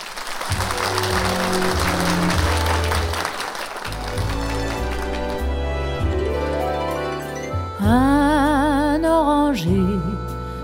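Loud, dense audience applause rings out over an instrumental introduction, dies away after a few seconds, and then a woman's voice begins singing a slow melody with vibrato.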